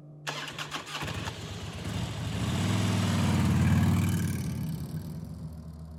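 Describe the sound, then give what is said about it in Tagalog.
A tricycle's small motorcycle-type engine sputters to life and runs with a steady low putter, revving up and swelling louder midway before easing slightly, with no one talking. “Nagpasakay na lang ako kay Dilan ng tricycle para makauwi ng bahay.”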